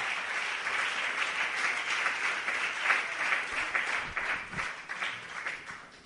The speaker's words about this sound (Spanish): Dele ese fuerte aplauso a la majestad del universo. Aleluya.